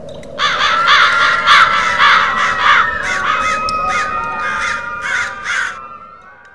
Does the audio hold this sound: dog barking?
no